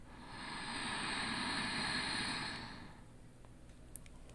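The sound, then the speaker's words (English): A single long breath inhaled through the nose with the back of the throat constricted, an ancient yogic breathing technique. It is close to the microphone and makes a soft, rushing, ocean-like hiss that swells and then fades over about three seconds, followed by quiet. “I'm gonna get closer to the mic so you can hear this, and it'll sound like the ocean.”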